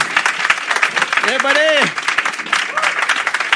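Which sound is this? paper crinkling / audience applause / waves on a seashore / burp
audience applause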